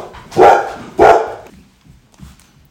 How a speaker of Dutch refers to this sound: Met eh, honden, uh, hondengeblaf. Ja, hondengeblaf.